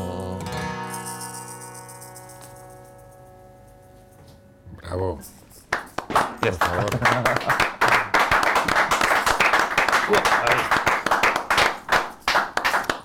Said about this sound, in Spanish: que explicar que si suenan pocos aplausos es que estamos los tres.